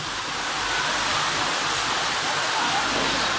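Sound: rain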